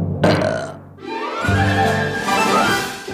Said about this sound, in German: Ich sag nur so viel: Vorsicht, Rülpsgefahr.